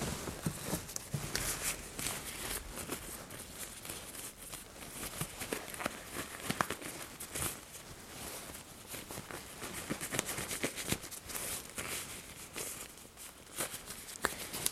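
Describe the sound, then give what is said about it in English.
Continuous crinkling and rustling of thin plastic exam gloves being pulled onto hands, with small snaps and crackles scattered throughout and no one speaking. “I'm going to put some gloves on.”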